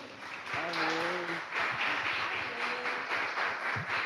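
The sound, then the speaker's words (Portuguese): A crowd applauds the pastor steadily for several seconds, a dense crackle of many hands, with a voice briefly calling out over the clapping near the start. “Palmas para o pastor.”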